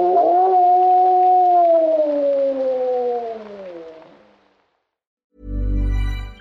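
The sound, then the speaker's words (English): A massive lone wolf named Mr. Cuddles lets out one long, loud howl as a goodbye; it holds steady, then slowly slides lower in pitch over about four seconds before fading. A brief, low buzzy burst follows after a pause. “Who's a cute wolf? You are, yes, you are.”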